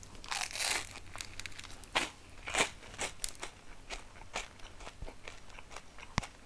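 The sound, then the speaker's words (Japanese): Crisp crunching of someone chewing pizza toast made on a hard baguette, a steady run of sharp bites and crackles over about six seconds, with no talking. “でもこの食べてる咀嚼音はいい音するよね”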